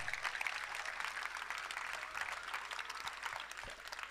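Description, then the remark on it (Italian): Steady applause from an audience, a dense crackle of many hands clapping at an even level for about four seconds, with no voices standing out. “Ah, poi secondo me, cioè, vero, applauso a scena aperta.”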